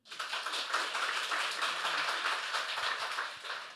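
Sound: audience clapping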